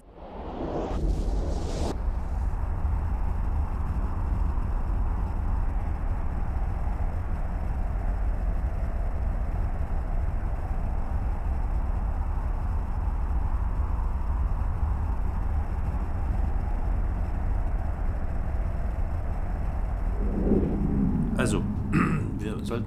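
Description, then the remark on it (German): A deep, steady sci-fi warp drive rumble kicks in with a quick whoosh and drones on loudly and evenly for about twenty seconds, with a few crackling bursts near the end. “Warp-Antrieb aktiv.”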